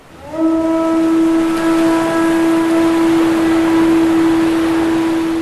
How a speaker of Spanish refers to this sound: Mientras las sirenas los consolaban, una de ellas descubrió a la señora Cangrejo soplando la caracola.